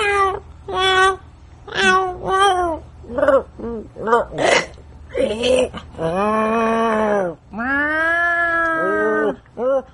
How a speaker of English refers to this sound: And now, this week's digital noise will be brought to you entirely by the cats in the house.